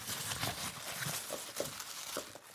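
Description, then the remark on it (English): Dry, papery rustling and crinkling as loose packing chips are shifted aside, with scattered light clicks and patters in an uneven rhythm, fairly quiet and continuous with no voices. “Um, and then if I just go through the packing chips, lift them to one side.”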